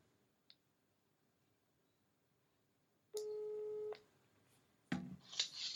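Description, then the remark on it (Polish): A single steady telephone ringback tone sounds on speakerphone for just under a second over a quiet background as a call is placed, then a burst of crackly, clattering noise follows as the line seems to connect. “No więc dzwonimy. Mhm, wybieram. Połącz. Głośnik.”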